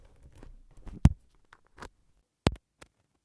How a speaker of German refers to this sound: Okay. Also ich stecke jetzt mein Headset wieder um.